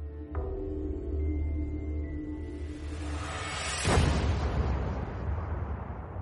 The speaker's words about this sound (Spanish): A las 11 horas y un minuto del 14 de marzo se produjo lo impensable. Una explosión hizo volar el edificio de contención del reactor número 3, y la cubierta de la estructura reventó totalmente.